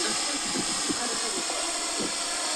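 A drone's rotor buzz, a dense, steady whirring hiss that stays loud for the whole stretch, with faint voices murmuring underneath.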